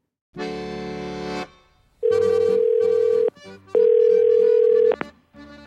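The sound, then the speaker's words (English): An outgoing phone call to a boat manufacturer: its ringback tone sounds in three long, steady bursts separated by short pauses, loud and alone, with a harmonic electronic buzz under a sustained mid-pitched tone. “I think the next step is probably just to call up as many boat manufacturers as humanly possible.”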